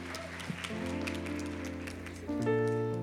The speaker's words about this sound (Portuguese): Uma tá salva de palmas para vocês.